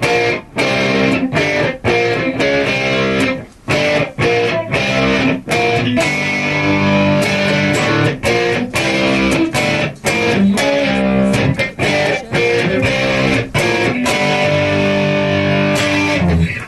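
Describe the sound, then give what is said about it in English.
A loud, distorted electric guitar plays a quintessential chunky rock riff alone, with punchy chords separated by brief stops in a steady, repeating rhythm, with a full sound. “the obvious quintessential rock riff is uh, the good old "…" riff”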